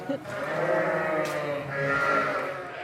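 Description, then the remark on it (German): A chorus of heavily pregnant sheep, soon due to lamb, bleating loudly and continuously inside a large barn as they are being fed, many overlapping calls forming a dense, wavering din. “Das heißt, äh, die, die Hochtragenden, die bald zum Lammeln kommen. Da ist lauter. Da ist lauter, weil die kriegen jetzt gerade nochmal High.”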